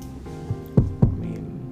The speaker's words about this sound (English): I saw you knock on wood right now.